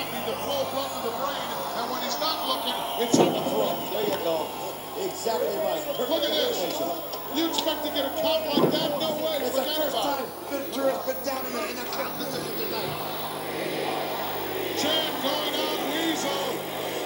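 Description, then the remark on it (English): A capacity crowd at Madison Square Garden chants "weasel" during a wrestling match in a loud, continuous roar of massed voices, with rhythmic swells and a few sharper accents rising through the steady din. “can hear that weasel chant.”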